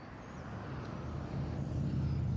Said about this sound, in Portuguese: Aqui em São Paulo vocês estão ouvindo aí os barulhos da cidade, os carros.